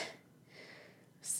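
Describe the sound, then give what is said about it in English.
A single quick sneeze bursts out near the end after a moment of near-quiet, a sharp, hissy snap that is over almost as soon as it starts. “Bless you.”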